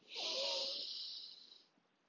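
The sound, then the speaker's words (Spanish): A single slow, airy breath during a breathing exercise, in through the nose and out through the mouth, a soft hissing rush of air that holds steady for over a second before fading into quiet. No talking. “Tu aire puede entrar por la nariz y salir por la boca. Es tu respiración habitual.”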